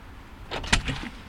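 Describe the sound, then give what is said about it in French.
A front door is opened by a woman, the partner of the man being visited, for a visiting journalist: a sharp latch click amid a short burst of rattling and creaking, lasting under a second before quiet returns. “C'est sa compagne qui m'ouvre la porte.”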